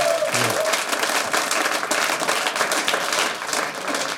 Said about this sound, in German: Äh, danke für den euphorischen Applaus. Mega.